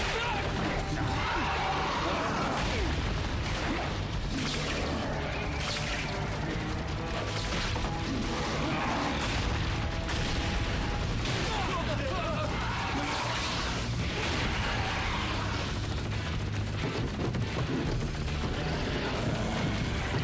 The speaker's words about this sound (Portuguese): Isso pra fazer o quê? Isso era pra machucar, né? Ideia certa. Calibre exato. Bala de canhão, olha só.